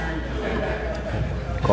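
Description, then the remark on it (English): Steady ambience at a local café: a continuous low murmur of indistinct background voices and room noise, with a brief clatter of activity near the end. “I'm sure you can hear the ambient background noise and activity.”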